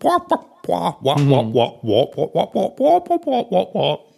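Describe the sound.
A single close voice mimics muffled, wordless adult chatter, a rapid string of about a dozen nasal 'wah-wah' syllables with rising and falling pitch, like garbled talk heard through a trombone.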